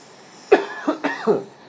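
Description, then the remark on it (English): A quick run of four harsh coughs after a large inhale, the first the loudest and sharpest, then three smaller raspy ones following in uneven rhythm, with no talking. “You get the large inhale, and you get the cough.”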